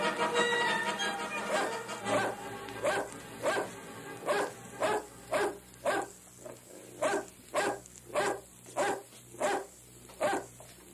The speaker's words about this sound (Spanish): ¿Quién le estará ladrando tanto a este perro condenado? Tiene rato de estar ladrando.